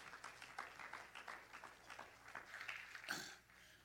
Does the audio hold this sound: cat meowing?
no